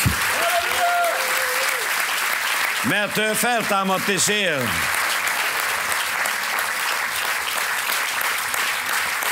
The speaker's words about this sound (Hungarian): Nagy, nagy tapsot adjunk Jézus Krisztusnak,